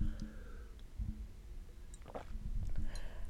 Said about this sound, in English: Hold on. I'm going to take a sip of my water.